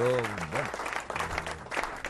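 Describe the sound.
Dense, steady clapping from a crowd, played as a canned applause sound effect with a slightly artificial quality, while a person speaks over it in a rising and falling voice.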